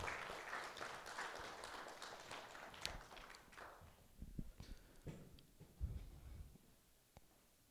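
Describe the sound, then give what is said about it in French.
An audience applauds the musicians: a dense burst of clapping that thins after a few seconds into scattered, uneven individual claps and taps before fading out. “Oui, oui, on peut les applaudir.”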